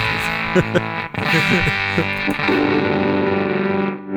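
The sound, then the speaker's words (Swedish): A thick, heavily distorted electric guitar tone from an effects pedal switched to its first, gated mode, with a few chord stabs giving way to a loud, buzzing sustained chord. “Det kanske inte framgår, men det här, den här pedalen var ju så, den, den, pedalen som har stått ut mest här.”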